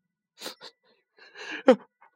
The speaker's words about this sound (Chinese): 小河马戴着大口罩，捧着药回家了。在半路上，他忍不住的又打了个大喷嚏。